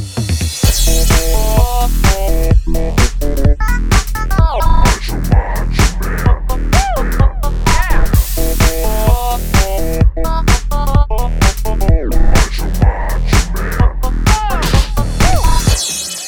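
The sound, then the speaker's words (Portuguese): A loud, upbeat intro jingle plays on its own, with a steady driving beat and bright melodic notes running continuously for about sixteen seconds, no voices over it. “Solta a vinheta!”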